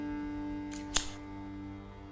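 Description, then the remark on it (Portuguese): A single sharp snip of black scissors cutting a stretched wool thread, preceded by a faint rustle, set against a steady low hum with no talking. “A moça desenrola de seu manto um fio de lã e estende uma tesoura negra ao homem, esticando o fio diante dele, que ainda sem entender o porquê daquilo, o corta.”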